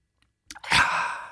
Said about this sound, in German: Ich habe auch ein Glas Wasser hier. Vor der Verabschiedung trinke ich nochmal kurz was.